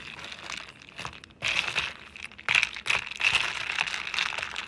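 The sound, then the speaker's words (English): Ice cubes clink and rattle in a cup of iced coffee: a string of light, irregular clicks and knocks over a soft, crinkly shuffling, with no talking. “And the sound that the ice cubes make, listen.”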